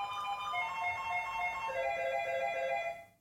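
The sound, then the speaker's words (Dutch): A school bell rings as an electronic chime, a steady, bright melody of sustained tones stepping between a few pitches, loud and alone for about three seconds before cutting off. “Wat the hell, de bel.”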